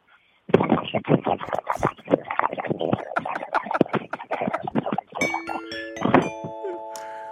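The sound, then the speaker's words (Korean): A voice imitates boiling water with a dense, rapid stream of bubbly pops and gurgles for several seconds, fairly loud, ending in a few bright ringing tones. “네, 그, 물 끓는 소리입니다.”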